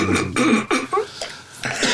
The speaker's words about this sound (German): Herr … ist am Husten, ne? Ja, ich bin am Husten.